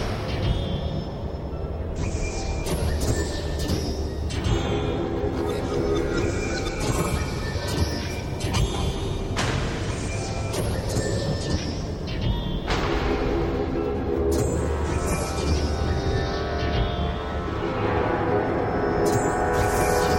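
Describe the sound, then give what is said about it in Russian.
A dense, continuous soundscape of organized construction noise for a film scene of an airship being built: a steady low rumble and hum layered with frequent metallic clanks and sharp knocks, loud and busy throughout, with no voices. “Вот, к примеру, какими организованными шумами сопровождается сцена строительства дирижабля.”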